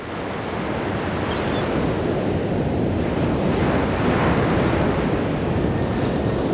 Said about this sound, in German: Meer, Wellen, Möwen.